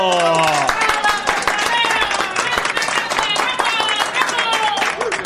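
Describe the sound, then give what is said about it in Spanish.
An audience claps steadily for several seconds, dense overlapping hand claps mixed with a crowd of excited voices calling out and cheering over the applause. “Aplausos, señores, vamos, vamos, muy bien, muy bien.”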